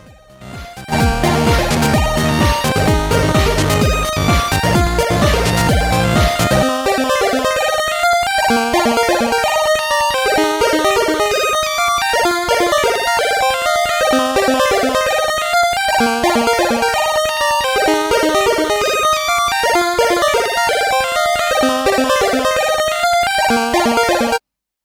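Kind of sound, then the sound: sound effect, music playing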